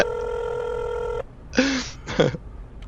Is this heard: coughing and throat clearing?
no